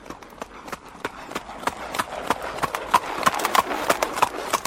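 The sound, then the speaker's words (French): Hooves of a horse-drawn carriage clip-clop at a steady, even trot, each sharp knock ringing clearly against hard pavement over a faint background hum. “À Lutèce, les automobilistes sont contraints de rouler au même rythme que les calèches, laissant les chevaux au repos sous le capot.”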